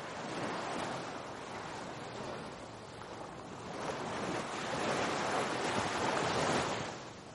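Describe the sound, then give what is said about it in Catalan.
Sea waves wash steadily against the shore of a cove with a soft breeze blowing, a continuous broad rush that swells slightly louder toward the end. No voices. “en aquella cala on gaudiria per sempre del sal la brisa y lesiones de la mar.”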